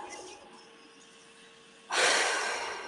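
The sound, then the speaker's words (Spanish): After a quiet moment, a single deep, loud breath rushes in, a broad airy sound that slowly fades as it continues. No one speaks. “por ejemplo, hay una respiración que es muy buena para, como para enraizarse, para centrarse, que es que yo hago una respiración profunda”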